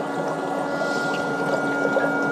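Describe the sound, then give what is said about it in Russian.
A foot spa running in its second mode, with its water-temperature-keeping function on, hums steadily while water bubbles and churns inside it, a continuous mix of motor drone and busy gurgling with no voices. “гудит немножко посильнее, вода начинает булькать.”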